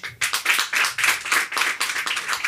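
A group of people claps steadily for a couple of seconds, a dense patter of many overlapping hand claps at moderate loudness with no voices over it. The audience is voting by applause for the option 'one week of not lying'.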